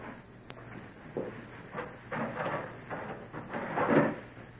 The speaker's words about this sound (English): I, I'm coming now. I, I'm going to open the door.